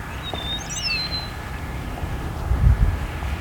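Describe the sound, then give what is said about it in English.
Starlings and an eastern meadowlark singing in the evening beside a road next to a quarry on the border of Hamilton and Niagara region: a few clear, high, slurred whistles in the first second, fading out while a low, steady rumble continues and swells briefly near the end. “We've got some starlings here singing and an eastern meadowlark singing.”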